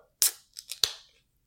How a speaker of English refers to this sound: I did that so that I have like that can opening sound effect.